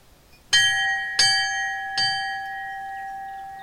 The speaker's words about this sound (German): Ein sanfter Glockenschlag mitten in der Weite der nördlichen Oberpfalz. In den Auen der Waldnab und mitten in einer großen Teichlandschaft steht eine moderne Kapelle.